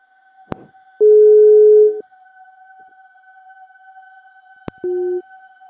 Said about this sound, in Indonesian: Langsung kita telepon. Nah, kita telepon aja dulu.